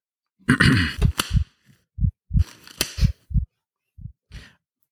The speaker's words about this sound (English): So as ever, I uh, step over to uh, just uh, clear my throat and pop on the uh, the blackad latex gloves.